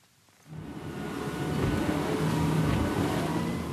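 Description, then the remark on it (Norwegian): A police speedboat with two 300-horsepower engines, off Stavern in Vestfold, Norway, roars up after a brief quiet start, settling into a loud, steady drone with churning water and wind noise, with no talking. “To motorer med 300 hester i hver gir luft i luggen.”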